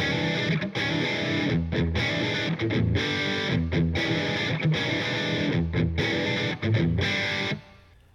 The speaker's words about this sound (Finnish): Luusens podcast palaa, niin kuin äsken kuulitte, höpötin sen pari minuuttia, mutta me on muokattu tuota ääntä niin, että se kuulosti erehdyttävästi meidän jinkulta.